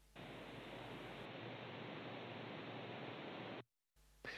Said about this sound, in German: Und das Rascheln der Blätter im kalten Herbstwind.